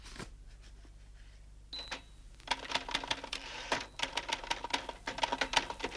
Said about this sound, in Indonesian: She's typing.